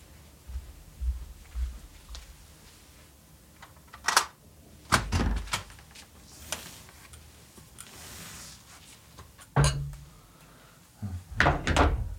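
A door is unlocked and opened: scattered metallic clicks and rattles of a key and latch, a few heavy thunks, then the creak and bump of the door swinging, with no talking.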